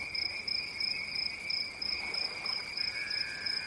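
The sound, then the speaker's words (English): Summer night ambience at Dewey Lake: a steady, distant chorus of crickets and frogs, with high, shrill trilling that pulses in quick, rhythmic bursts over a soft, even hiss. No one speaks. “It's the sounds of Dewey Lake.”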